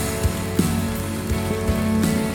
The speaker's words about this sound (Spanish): Vamos, denle un aplauso fuerte al Señor, colóquese en pie, apláudale bien fuerte al Rey. Él puede.